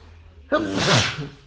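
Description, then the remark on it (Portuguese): A single loud sneeze bursts out suddenly with a sharp breathy rush that fades over about a second. “Ai, desculpa, gente.”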